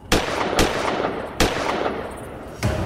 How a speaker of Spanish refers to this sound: Tres disparos en la noche.